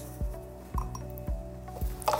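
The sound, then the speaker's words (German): Four soft, evenly spaced knocks as a small container of test solution is opened and tapped out, its contents emptied into a glass, followed by a short bright clink against the glass, with no one speaking. “Ich nehme jetzt die Testlösung, öffne das Döschen, gebe den Inhalt in das Glas”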